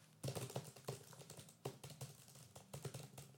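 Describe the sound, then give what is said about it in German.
Rapid typing on a computer keyboard, a steady patter of clicking keystrokes with brief pauses between bursts, no voices present. “Ich habe hier gerade mit meinem Rumgetippe die Closed Caption in unserem Gespräch an”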